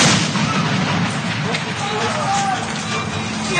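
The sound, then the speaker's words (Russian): An unidentified device explodes next to Russian armored vehicles at a crossing point on the Syrian-Turkish border, filmed by eyewitnesses: a loud explosion roars with a dense, sustained rumble that fills the whole clip, while indistinct voices shout faintly underneath. “Момент взрыва очевидцы сняли на видео.”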